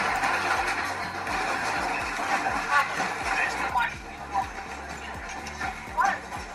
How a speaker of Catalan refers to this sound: És el tren, una infraestructura bàsica i crucial per entendre el dia a dia aquí, a Ucraïna